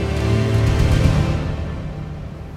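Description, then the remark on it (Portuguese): A loud, roaring wash of very strong wind and rough, churning sea at an isolated, icy island, with a deep low rumble underneath and hissy gusts that slowly ease off. No voices are heard. “Era uma ilha isolada, gelada, inóspita, com ventos fortíssimos e um mar muito agitado.”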